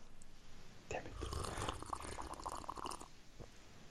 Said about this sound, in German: ich trinke in der Zeit mal einen schönen Schluck Wasser.